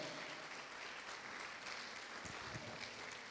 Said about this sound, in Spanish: Dele palma fuerte al rey de la gloria.